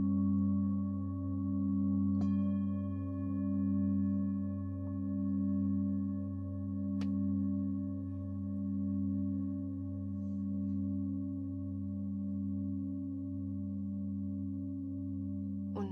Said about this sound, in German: mit dem Ton der kleinen Klangschale kannst du wieder ganz hier sein.